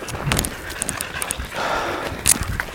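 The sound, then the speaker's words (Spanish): Uneven hoof steps of a cow walking away on rough ground to go eat after its leash is removed, a few soft thuds and scuffs with some rustling, and a brief snort-like breath near the end. “Ok, ya estás libre.”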